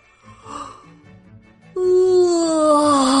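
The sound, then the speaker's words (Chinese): A voice acts out a yawn: a soft, breathy intake, then a loud, drawn-out vocal 'aah' that holds steady and slowly sinks in pitch for over a second. “基努打了个哈欠”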